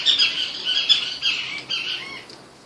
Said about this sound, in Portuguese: Hoje a gente tem um, um outro passarinho no fundo, acho que é uma caturrita que a gente chama aqui na região. Tá Ela fica conversando assim, muito engraçado. Ó, tá subindo. Não sei se vai captar. Deve ter uma, um bando delas aí.